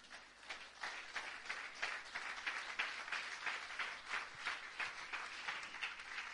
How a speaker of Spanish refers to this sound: Dios es el creador del cielo y de la tierra. Y no es que él alimente su ego, sino que él se lo merece. Batid las manos, batid las manos.